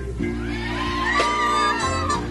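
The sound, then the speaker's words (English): A large concert crowd screams and cheers continuously, many high voices overlapping in wavering shrieks and whoops, loud and steady over a low droning hum throughout. “I want to hear you scream.”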